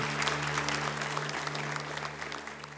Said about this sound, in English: Can we give those who raise their hand a great clap of encouragement? So good.